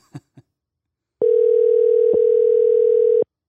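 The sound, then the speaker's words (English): A couple of quick clicks, then a steady electronic ringing tone sounds over a phone line for about two seconds, loud and clear, with no voices. “Coming over the line, we got Mr. Al Agner. Let's see if he picks up again.”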